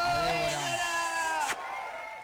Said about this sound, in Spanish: con este aplauso le ah, agradecemos.